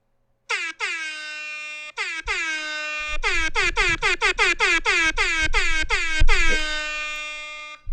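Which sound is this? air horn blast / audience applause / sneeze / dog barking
air horn blast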